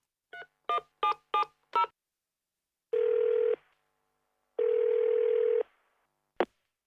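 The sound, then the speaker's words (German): A phone call to a supplier's accounting department: five quick keypad tones are dialed in a brisk sequence, followed by two long, steady ringback buzzes and a sharp click as the line connects. The sounds are clear, with no voices. “Sie rufen die Buchhaltung eines Zulieferers an.”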